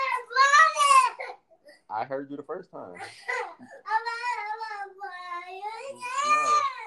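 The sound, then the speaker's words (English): A young child cries and wails loudly in long, strained bursts at bedtime, refusing to lie down, with an adult speaking briefly between the outbursts. “You gonna stop yelling too?”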